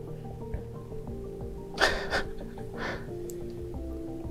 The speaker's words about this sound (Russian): Ой, он уже дышит. Не дышит? Он дышит. Я надеялся, что он откинулся. Он дышит, очень глубоко дышит